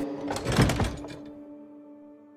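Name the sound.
door opening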